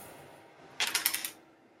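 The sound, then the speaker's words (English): A four-sided pyramid die (d4), rolled during a tabletop game, clatters across a tabletop in a quick run of about six sharp clicks, settling within half a second against a quiet background and landing on its maximum, four. “Okay, let's get a pyramid dice.”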